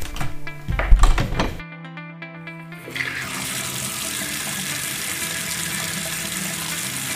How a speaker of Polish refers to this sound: Weszłam do łazienki i zaczęłam nalewać wodę do wanny.